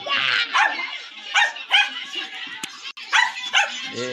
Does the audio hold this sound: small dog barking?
yes